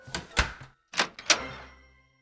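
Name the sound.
door opening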